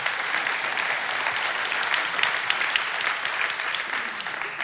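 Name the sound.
audience clapping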